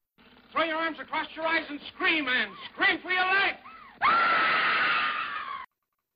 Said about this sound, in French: Mais elle crie bien parce que quand elle est sur le bateau et qu'elle lâche son cri, elle te fait imaginer qu'elle est devant un singe quand même.